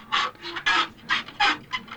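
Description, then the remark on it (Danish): A hand saw cutting a wooden chair in two during a performance by Philip Corner on the harbour at Risøhavn, with quick rhythmic back-and-forth rasping strokes, about six in two seconds, fairly loud with no talking. “Alt imens det sker, så står Philip Corner og forsøger at sæve en stol over i to halvdele.”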